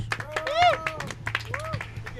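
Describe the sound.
An audience applauds, with a steady patter of sharp claps mixed with rising and falling whoops or whistles and chattering voices, moderately loud throughout.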